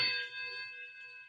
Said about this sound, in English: Did you hear that? Nine bells. What of it? What of it? There's no such thing as nine bells. It, it's like a clock striking 13 o'clock. that means death.